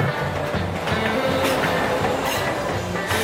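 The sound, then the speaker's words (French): A New York subway train rolls steadily along the rails with a continuous low rumble, metallic rattling and faint periodic clacks, fairly loud, with no voices. “Les années 40, Harlem, New York et cette nouvelle branche du métro qui bifurque vers le Bronx au niveau de la 145e.”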